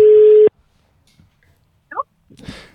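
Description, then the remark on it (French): A loud, steady telephone ringing tone from a call placed during a radio show's phone-a-friend segment to someone working in the cultural sector sounds once for about half a second, then stops abruptly, followed by near silence and a couple of brief, soft noisy bursts. “Eh bien, pour le coup, on va appeler quelqu'un qui travaille dans le secteur euh, culturel, qui vit et qui fait vivre euh, ce secteur-là.”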